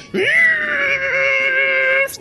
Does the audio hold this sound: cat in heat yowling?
yes